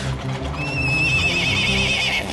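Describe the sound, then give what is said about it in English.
A horse pulling a heavy wagon through snow lets out a long, high whinny that quavers and wavers in pitch for nearly two seconds, over a steady low rumble of hooves and movement. “The horses tear loose from their tracers and bolt, and the Slovaks scatter and vanish after them.”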